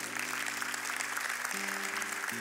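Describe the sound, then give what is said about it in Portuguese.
An audience applauding a couple who come forward to receive baptism in the Holy Spirit: dense, steady clapping throughout, with sustained low keyboard chords underneath that shift twice near the end. “Dê uma salva de palmas para ele, por favor.”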